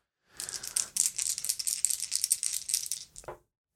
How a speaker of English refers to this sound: All right, I've got a 10 on the action die. I've got a 5 and a 1 on the challenge dice for a strong hit.